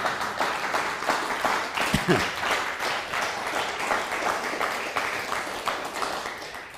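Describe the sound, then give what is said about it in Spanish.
A church audience applauding steadily at a Rosh Hashanah new-year service, with dense, overlapping claps that stay at a fairly even loudness for several seconds and are briefly joined by a short voiced sound. “No, yo pensé que usted iba a decir amén, un fuerte aplauso o algo así.”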